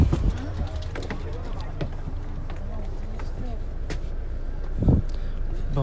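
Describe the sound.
Inside a moving bus: a steady low engine rumble and road noise fill the cabin, with occasional rattles and knocks and faint muffled voices in the background.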